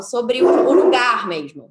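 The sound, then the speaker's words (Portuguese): A pet dog barks and whimpers in short, yelping bursts, mixed in beneath a person talking steadily over it. “Desculpa o meu cachorro, que ele é não, A gente está ouvindo o cachorro, mas a gente está fingindo que não tem ninguém aí.”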